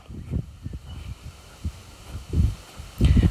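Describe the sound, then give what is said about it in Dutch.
Wind buffets the microphone in uneven low rumbling gusts, with muffled thumps coming and going and a stronger, louder blast near the end. “oh de wind wordt nu erger.”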